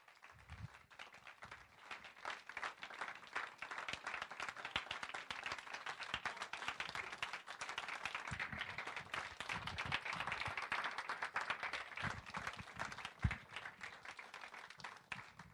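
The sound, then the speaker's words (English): A crowd gives a standing ovation, applauding steadily for about fifteen seconds, a dense wash of many hands clapping at an even, sustained level without pause, with no speech over it; a guest is being thanked at a church service. “We got time for standing ovations.”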